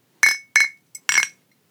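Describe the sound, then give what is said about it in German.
Beer glasses clink together four times in quick succession in a toast, bright ringing taps with a short decay, the third one lighter and briefer. Fairly loud, with no talking. “Wir müssen auch anprosten.”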